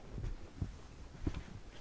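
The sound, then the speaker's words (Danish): A dog at the bottom of a staircase in a residence whimpers softly, three brief low whines spaced across a couple of seconds, with no one talking. “Hov, du har en hund.”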